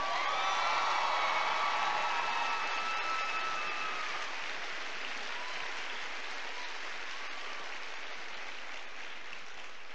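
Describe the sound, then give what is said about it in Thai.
A large crowd applauds for the full stretch, a dense, steady roar of clapping with a few faint cheers near the start, easing only slightly toward the end. “ผมนั่งฟังอยู่ข้างหลังเนี่ยตบแค่นี้ ยังเพิ่งได้แค่สสิบองเปอร์เซ็นต์เอง เอาดังกว่านี้หน่อยตบแบบจะเป็นคนจะเป็นยิเบต”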